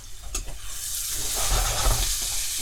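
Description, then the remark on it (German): Food sizzles steadily in a hot pan, with scraping and clattering as it is stirred to spread the contents around the pan, the crackle building slightly louder toward the end. No one speaks. “Aber damit verteilt ihr immer schön richtig das, was halt drin ist, schön in der Pfanne.”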